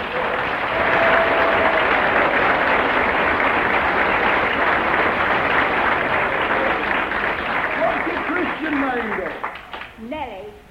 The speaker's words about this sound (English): Give her a clap, will you?